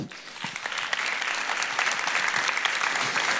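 An audience claps steadily for a man called up to the front, a dense wash of many hands with sharp individual claps poking through, sustained at an even, fairly loud level throughout.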